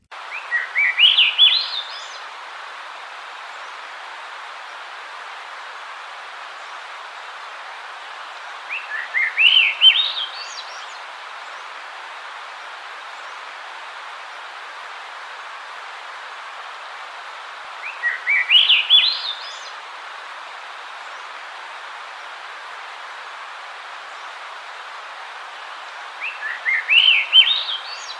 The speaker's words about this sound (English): that once again was the Swainson's Thrush.